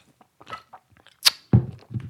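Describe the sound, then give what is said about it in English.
Mouth noises: a few soft wet clicks, a sharp quick slurp of a sip of a drink, then a low, breathy throat sound right after, like a swallow and exhale. “I'm taking another sip and say, yo.”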